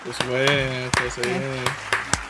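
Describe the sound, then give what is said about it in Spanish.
A handful of sharp, irregular handclaps, around eight in quick succession, ring out over a voice holding a sustained, wavering tone, like a brief, sparse round of applause. “Aplausos, por favor,”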